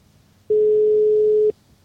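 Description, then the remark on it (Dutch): A telephone ringing tone heard while placing a call: one steady, mid-pitched electronic beep lasting about a second, loud and alone, with near-silence before and after. “En wij gaan haar even bellen.”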